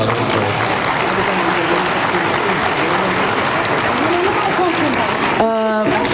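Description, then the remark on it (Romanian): A crowd applauds loudly and steadily for several seconds, with scattered voices mixed into the clapping. Near the end, a single voice breaks through. “Aplauze pentru asta.”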